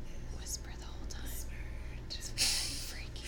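Breathy whispering with sharp hissing sibilants and airy bursts, no voiced speech, over a steady low hum; one brief louder breathy rush near the middle.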